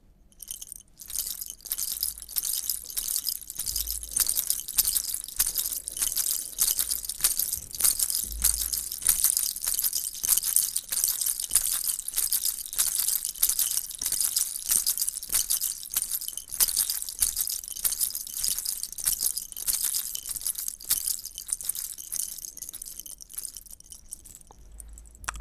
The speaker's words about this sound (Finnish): Nämä olivat kivikautisten helistimien ääniä. Eli helistimet on tehty eläimen hampaista laittamalla reikä toiseen päähän tai uraa ja ripustamalla ne koristeeksi sarjoissa tai riveissä vaatteisiin.